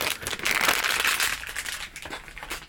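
A plastic bag holding a circuit board crinkles and rustles continuously as it is handled and opened, moderately loud, with no voices over it.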